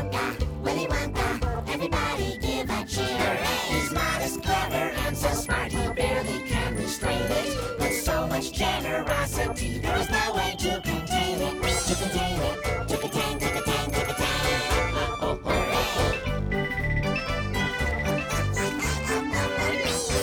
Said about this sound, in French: On vient d'entendre un extrait de la bande originale de Charlie et la chocolaterie de Tim Burton dans une chanson mettant à l'honneur Willy Wonka, le chocolatier excentrique et généreux que l'on ne présente plus.